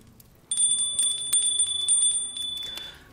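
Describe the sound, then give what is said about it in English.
A bell is rung loudly, its bright metallic tone sustained through rapid repeated strikes for about two and a half seconds before cutting off. “So let me just ring the bell.”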